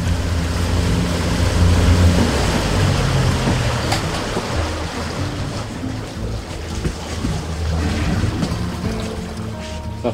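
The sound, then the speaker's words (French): A fishing boat out on Lac Brome in midsummer, a steady low motor hum running under continuous washing water and light wind noise for the whole stretch, with no one speaking. “On s'est rendu sur le lac Brome en plein milieu de l'été, sur le bateau du pêcheur zen.”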